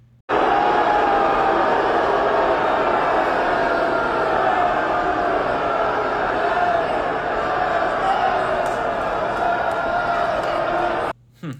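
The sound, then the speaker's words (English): A large crowd of conservatives at the Texas GOP convention in Houston reacts to a speaker taking the stage with a loud, sustained roar of mingled voices that holds steady for about eleven seconds before cutting off abruptly. “Take a listen to the reception that he got from that crowd of conservatives, of real conservatives.”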